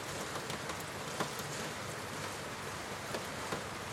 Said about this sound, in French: Vous pouvez entendre le son de ma voix posée sur la pluie qui tombe goutte à goutte sur cette fenêtre.